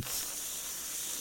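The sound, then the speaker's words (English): A voice makes a steady, hissing buzz imitating a cicada's drone in the heat, sustained for just over a second, with no words spoken. “and it was just, again, the heat you could hear, almost like you're not even just the air conditioner hum, but also like that that that cicada noise.”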